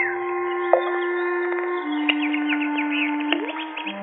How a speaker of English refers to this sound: What's that? birds playing in the fish pond. Look at them. Happy birds.